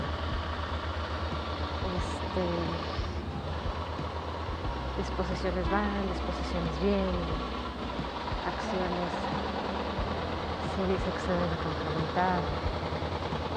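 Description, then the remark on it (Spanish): A steady, low mechanical rumble of construction machinery from a construction project underway drones in the background throughout, with a man speaking continuously over it. “Ese ruido que se escucha en el fondo es este, una obra que se está realizando en donde los trabajadores de construcción no cuentan con el cubrebocas.”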